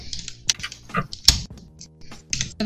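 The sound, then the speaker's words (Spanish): Keycaps being pried off a keyboard as it is taken apart: a few sharp plastic clicks and snaps at irregular intervals, with light scraping and rustling in between and no talking. “Estoy desarmando mi teclado.”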